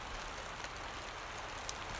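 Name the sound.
rain falling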